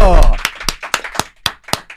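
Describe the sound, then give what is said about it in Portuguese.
An audience applauds to welcome a guest, steady, sharp claps, about seven crisp hand claps in a regular rhythm over two seconds, following a brief burst of noisy sound at the start. “Salve de palmas para ele!”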